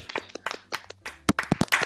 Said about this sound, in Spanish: Otra vez un aplauso.